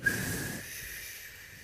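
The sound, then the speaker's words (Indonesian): A single long, deep breath: a rough, airy rush for a moment, then a softer, steady hiss trailing off. No one speaks. “I mean tarik nafas panjang dulu nih oh.”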